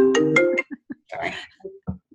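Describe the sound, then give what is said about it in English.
A phone ringtone plays through a computer at moderate volume: a brief run of bright, sustained electronic tones, then a scattering of short, clipped beeps and notes. “Yes, and it rings through my computer now, and I can't quite figure out how to disable that.”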